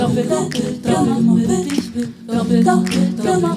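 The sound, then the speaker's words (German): A crowd claps together in a steady rhythm, one half of an audience clapping along as a performer instructed, the claps coming as regular sharp bursts over a dense, sustained wash of voices or music. “Diese Hälfte hier, ihr müsst einfach nur klatschen.”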